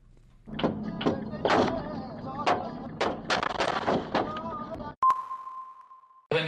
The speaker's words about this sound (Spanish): fue baleado por sujetos que intentaron cerrarle el paso. Los hechos quedaron registrados en la cámara de su auto. Escuche.